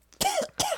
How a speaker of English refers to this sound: Bless you. Thank no, that's a cough.